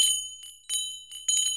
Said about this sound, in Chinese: 一阵奇怪的铃声。从石柱塔的深处传了出来。